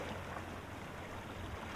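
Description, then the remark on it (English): A steady, continuous rush of sea waves along a coast, a dense wash of surf noise that holds level throughout with no single wave standing out and no voices. “And these are the sounds that define the lighthouse, the sounds of the sea.”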